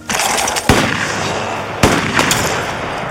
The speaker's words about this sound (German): Sehr guter Schuss.